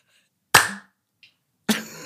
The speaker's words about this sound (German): das Klatschen am Anfang, das ist immer der Kracher.